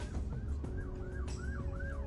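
An ambulance siren wails in quick repeating rising-and-falling sweeps, loud and steady, over a low rumble of road traffic. No one speaks.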